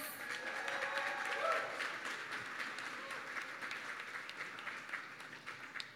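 A crowd applauds steadily for several seconds with dense clapping as a rapper and singer is introduced. Whoops and cheers rise near the start before the ovation gradually thins toward the end.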